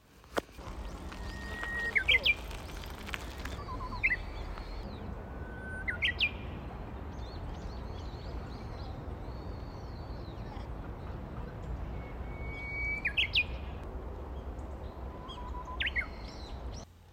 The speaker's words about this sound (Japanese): 桜が散る前に、すごく久しぶりに、数年ぶりに、えー、桜並木をちょっと歩いていました。その時に、運よくえー、ウグイスの鳴き声を拾うことができました。えー、なので今日は春の訪れのウグイスの声をお届けしたいと思います。